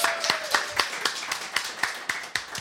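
Applause in the form of steady, evenly spaced hand claps, about eleven sharp claps in under three seconds at a brisk, regular rhythm, with no talking over them.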